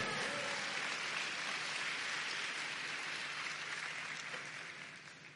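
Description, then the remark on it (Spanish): An audience claps for the Lord in a dense, steady wash of applause that holds strong for several seconds, then gradually tapers off toward the end. No voices are heard. “Dele palmas al Señor.”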